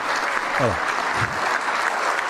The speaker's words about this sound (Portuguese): Aí o povo aplaude, ó.